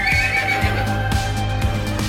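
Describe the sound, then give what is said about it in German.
A horse whinnies loudly, its shrill, wavering call stretching across the whole short moment over a steady rhythmic beat of low thumps underneath. “Und da frage ich gleich der Kalk den Welk, äh, weil Oliver Mengershausen hat, äh, hat uns geschrieben und gesagt, warum gibt es eigentlich das wiehernde Pferd im Vorspann?”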